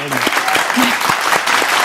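Audience applause, a dense and steady wash of many hands clapping at once, loud and sustained with a brisk crackling texture throughout.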